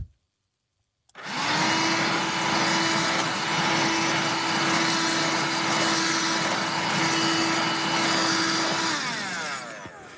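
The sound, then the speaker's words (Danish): A handheld vacuum cleaner switches on after a second of silence and runs loudly and steadily with a constant whining hum, then winds down at the end. No one speaks. “De her håndstøvsuger, de er så smarte.”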